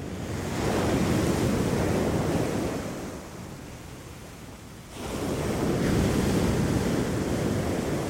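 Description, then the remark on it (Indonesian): Small waves wash against the shore in a steady hiss, easing off for a couple of seconds before another swell rolls in. No voices, just water and a little wind. “Ombak kecil seakan sengaja membawanya ke tepi agar para penduduk dapat menemukannya.”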